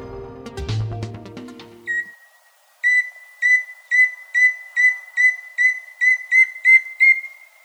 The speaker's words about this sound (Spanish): El y chusquero que estamos escuchando vive en la cordillera oriental, entre los 1900 y los 3000 metros sobre el nivel del mar. Mide unos 22 centímetros y le gusta andar por el suelo, preferiblemente entre los matorrales de bambú.